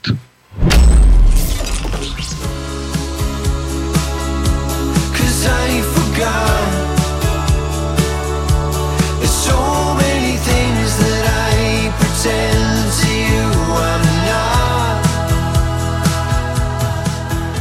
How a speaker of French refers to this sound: On va commencer par un extrait qui est le quatrième titre de l'album, un extrait où on, ah, va quand même avoir un peu de guitare qui est inclus dans un son plutôt pop sophistiqué